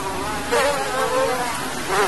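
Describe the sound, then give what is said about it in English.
A dense, continuous whine of many mass-produced mosquitoes buzzing together in adult cages, steady, with slight swells in loudness as the swarm hums on without any talking. “And then over here, we have the mass produced mosquitoes getting ready to give us the eggs to go out directly into the field.”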